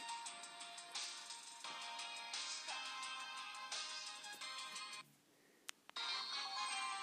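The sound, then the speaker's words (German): Bright, electronic video game music plays loudly and steadily in short melodic phrases, briefly dropping out near the end before resuming at full volume. No one speaks. “Hört ihr die Musik?”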